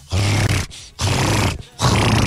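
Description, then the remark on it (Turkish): A person imitates the growl of a dog that appeared on the road while walking, with three loud, rough, snarling bursts in quick succession, each about half a second long, with brief pauses between them. “Yolda yürürken bir tane köpek çıktı önümüze. Böyle yapıyor”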